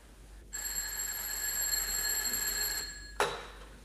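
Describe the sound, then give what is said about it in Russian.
A telephone rings with a steady, bright electric bell tone lasting about two and a half seconds, then cuts off, followed by a brief click as the receiver is lifted. “Положив трубку, Степанов снова прикрыл телефон подушкой”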